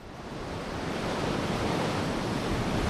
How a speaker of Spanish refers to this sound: Seguimos con fuerte oleaje, olas de 4 y hasta 5 metros que esta noche y mañana volverán a alcanzar los 6 metros de altura.